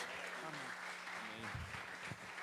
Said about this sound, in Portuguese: Você pode dar uma salva de palmas para Jesus nessa noite?